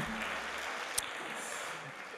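A crowd applauding steadily, a dense wash of many hands clapping at once that holds evenly throughout, with one sharper clap standing out midway.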